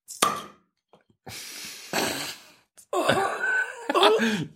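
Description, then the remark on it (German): A single loud pop of a bottle of Zwickel beer being opened, followed by bursts of hissing rustle and then a voice groaning and laughing without clear words. “Also mit so viel Plopp habe ich jetzt nicht gerechnet.”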